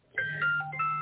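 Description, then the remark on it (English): A short electronic chime from a phone plays a few bright, stepping tones in quick succession, a phone notification dinging early in the morning, over a low steady hum. “Sorry about that. That's my phone.”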